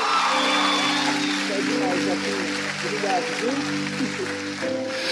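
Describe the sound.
A church audience at a worship service claps steadily in a dense, continuous round of applause, layered over sustained keyboard chords and a few voices calling out.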